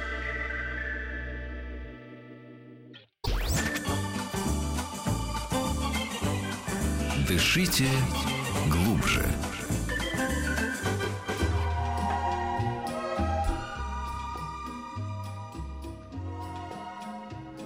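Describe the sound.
A short synth tone, a brief gap, then the loud, dense electronic intro jingle of the Fadeev clinics segment on Radio Mayak, drenched in distortion and echo-like effects, with a short processed voice phrase near the start.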